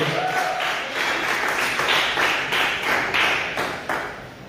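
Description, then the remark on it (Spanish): Loud, sustained applause from a crowd for the Messiah, Yeshua, a dense wash of many hands clapping steadily with brief surges, continuing for several seconds without any speech over it. “de un fuerte aplauso al Mesías que va a purificar toda la casa de Israel.”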